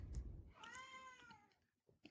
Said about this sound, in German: mit meiner Katze im Hintergrund.